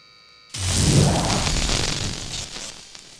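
A steady hiss like falling rain starts abruptly and continues as a dense, even wash of noise, loud at first and easing slightly toward the end, with no voices.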